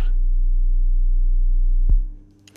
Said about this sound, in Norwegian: Skal vi ta det hakket lavere, til 30 hertz. Skru opp subwooferen. Skru opp wooferen.